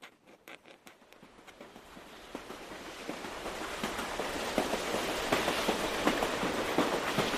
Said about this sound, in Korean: 칙칙 폭폭 철도였어요.